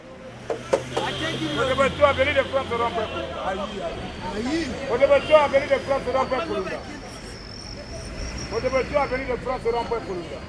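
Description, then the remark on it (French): Loud voices of bus conductors call out destination names repeatedly over a crowded street to attract customers, overlapping with general chatter and a low traffic rumble. “Là, on est passé devant les contrôleurs de bus qui euh, écrit le nom de la destination pour essayer d'attirer les clients.”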